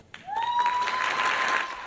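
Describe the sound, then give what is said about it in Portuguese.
An audience at a Thursday award ceremony in Washington, United States, breaks into dense, sustained applause as Brazilian Pureza Lopes Loyola receives the TIP Report Heroes anti-trafficking award from US Secretary of State Antony Blinken; the applause swells quickly and holds steady, with a clear high whistle-like tone sliding up over the clapping. “Sob muitos aplausos, a maranhense Pureza Lopes Loyola recebeu das mãos do secretário do Estado americano Anthony Blinken o prêmio Heróis no Combate ao Tráfico de Pessoas, durante cerimônia realizada nesta quinta-feira em Washington”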